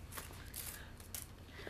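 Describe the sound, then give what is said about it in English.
A sheet of paper is handled, giving a few soft, brief rustles and crinkles at an uneven pace, quiet overall, with a hint of a voice starting right at the end. “I just lost the paper. Oh, it's on the floor.”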